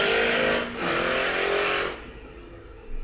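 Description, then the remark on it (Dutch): Loud motorcycle engines roar past, one surge following another with a revving rise, then the noise drops away to a lower rumble as they move off. “Dat heb je hier. Hier komen motoren langs.”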